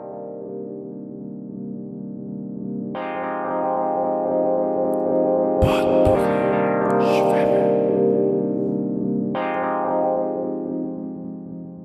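A short instrumental music interlude with sustained, layered synth-like chords that shift every few seconds, a brief swelling whoosh in the middle, steady and moderately loud with no one talking.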